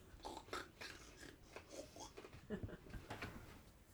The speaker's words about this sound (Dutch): Smak ik een beetje te veel.